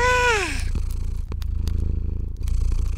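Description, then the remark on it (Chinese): A cat purrs loudly in a steady, low, pulsing rumble that runs throughout, opening with a brief high cry that slides downward in pitch. “你没听到我呼噜呼噜呼噜这么大声吗？”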